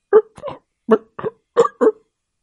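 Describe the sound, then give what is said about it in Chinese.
A voice imitates an old green car that will not start hiccuping: six short, voiced hiccup-like bursts in three quick pairs, fairly loud and alone with no other sound. “原来，汽车有时也会打嗝”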